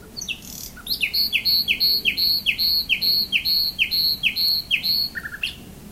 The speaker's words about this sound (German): Seit du von mir gefahren, singt stets die Nachtigall. Ich denk bei ihrem Schall, wie wir zusammen waren.